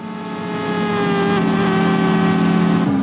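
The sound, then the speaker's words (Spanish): A video game race car engine drones loudly and steadily, a buzzy high-revving whine that holds its pitch for a few seconds before dipping abruptly near the end, like a gear shift. “Es que no solamente era el diseño de los carros, sino ya cómo venían preparados para venderle a uno la experiencia de, ok, Aquí sí siento cómo suena el motor”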